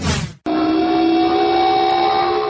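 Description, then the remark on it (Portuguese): Air raid sirens in Kuwait's capital sound a loud, steady, unbroken wail, rich in overtones, announcing another Iraqi Scud missile attack, starting abruptly after a brief burst of rough noise and a split-second gap. “Essas são as sirenes aqui na capital do Kuwait anunciando mais um ataque dos mísseis de escudos iraquianos, nós já tivemos duas ondas de ataque.”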